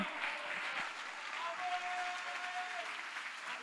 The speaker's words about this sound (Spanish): Si le va a dar un aplauso al Señor.